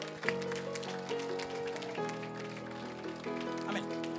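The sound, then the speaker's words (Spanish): An audience applauds loudly for the Father, Son and Holy Spirit, a dense, steady wash of many hands clapping, with sustained keyboard chords playing underneath throughout. “Dale un aplauso fuerte al Padre, Hijo, Espíritu Santo.”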